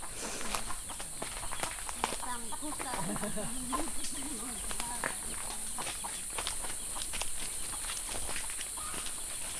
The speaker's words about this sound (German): Da hören wir Hühner, oder? Und Grillen zirpen.